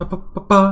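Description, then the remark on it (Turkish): A voice imitates snare drum hits with quick, clipped percussive syllables, a few rapid bursts, the last one louder and drawn out. “pa falan gibi trampete vurma sesleri var.”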